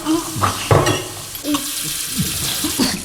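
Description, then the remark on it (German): Water runs from a tap in a toilet room in a steady rushing hiss, with a few brief clinks and knocks breaking through the flow, as tooth glasses are filled and people drink from the tap. “Trinkt so viel aus dem Hahn, wie ihr könnt.”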